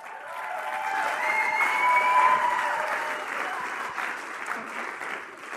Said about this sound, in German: Und auch hier habe ich einen Intro-Partner eingeladen. Geben wir doch einen grossen Applaus für die Lea Haldimann.